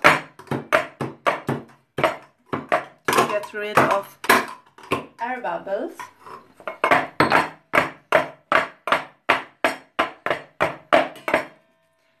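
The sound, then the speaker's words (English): A mold filled with butter filling is tapped repeatedly against a table, producing a steady series of loud, sharp knocks, about two per second, with a voice speaking briefly partway through. “okay so I have filled I have filled them with the filling with the butter and I will hit the mold against the table a few times”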